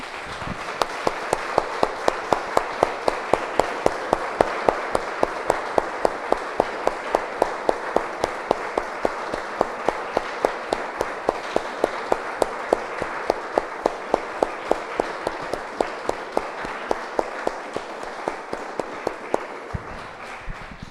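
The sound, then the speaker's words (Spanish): A church audience applauds steadily for about twenty seconds after a prayer, a dense, sustained clapping from many hands with sharp individual claps standing out, fading slightly near the end; no one speaks. “Damos un aplauso, hermanos.”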